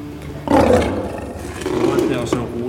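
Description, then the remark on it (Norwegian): A lion roars only a few centimetres from the listeners, a loud rumbling roar starting half a second in and swelling again near the end, with a person's voice faintly mixed underneath. “Og vi sto faktisk bare noen centimeter unna de store løvene”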